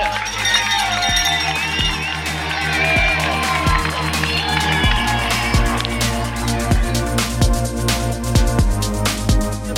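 A loud, dense crowd cheering and shouting continuously at a trail race at Saint-Gervais, kilometre 20, with music playing and a steady, rhythmic low thumping beat pulsing underneath the whole time.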